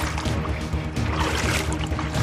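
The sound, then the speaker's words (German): Continuous sloshing and churning of water, fairly loud, as a person wades through a deeper, knee-deep, slippery stretch of water, with splashy surges over a steady low rumble and no one speaking. “Doch jetzt kommt auf jeden Fall eine viel tiefere Stelle. Ähm so, bis zum Knie geben mir das Wasser. Es ist rutschig.”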